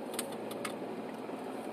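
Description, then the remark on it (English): Quick, light ticks of a car turn signal flashing fast because a tail light is out, a few sharp clicks at the start, heard inside the vehicle over a steady low engine and road hum. “See how hear how fast it's going? Tick tick tick tick tick tick tick tick tick tick tick. because there's a tail light out.”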